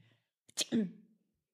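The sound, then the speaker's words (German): A single sneeze: a quick catch of breath, then a sharp, noisy burst trailing off into a short voiced tail, with quiet around it. “Da würde ich so. genauso nie, ich würde genauso Gesundheit sagen, wie du niest.”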